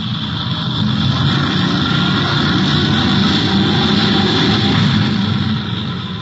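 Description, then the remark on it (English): A loud, continuous rocket engine roar as a rocket takes off for Mars, a dense low rumble with a steady hiss on top, swelling in during the first second and holding steady with no voices. “The children, strapped like tiny mummies in the rubber hammocks, screamed as the rocket thundered and leapt.”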